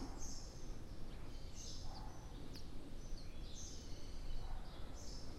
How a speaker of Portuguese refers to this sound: É muitos pássaros aqui.